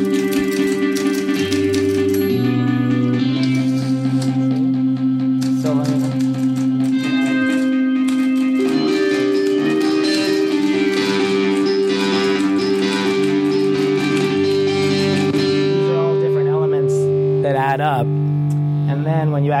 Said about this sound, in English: Here's the typewriter, and here's like another rock guitar that's going on under it.